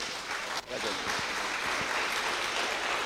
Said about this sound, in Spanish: Amén. Nos recibimos otra vez con un fuerte aplauso entonces.